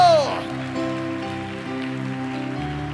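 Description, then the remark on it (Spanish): A church audience applauds steadily, giving a loud round of applause to the Lord, a dense patter of many hands clapping at once, over sustained keyboard chords that hold and shift underneath. “Démosle un fuerte aplauso al Señor por ellos.”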